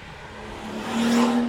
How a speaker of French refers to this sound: Ah, il y a une voiture. Oh là là, qui est. Pressée. Oh mon dieu.